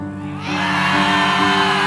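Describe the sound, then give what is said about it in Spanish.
An audience bursts into loud, sustained shouting, a group yelling together imitating how Jacob cried out in pain when the Lord dislocated him, rising sharply after a brief quieter start and holding for the rest. “¿Cómo creen que gritó Jacob cuando, cuando lo descoyuntó el Señor? E, e, enséñeme ustedes cómo gritó.”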